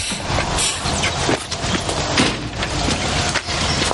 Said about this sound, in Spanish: llega en el camión ante la puerta de la casa y se baja de él de modo apresurado.